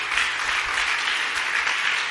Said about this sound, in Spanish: Aplauda fuerte la grandeza de nuestro rey.